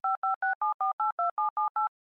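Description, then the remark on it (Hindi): A phone number being dialed while lost in an unfamiliar city, calling an uncle: ten quick, evenly spaced touch-tone beeps, each a short two-note tone, clear with no voices. “कहाँ है उनका फ्लैट आखिर नवल काका को फोन लगाया”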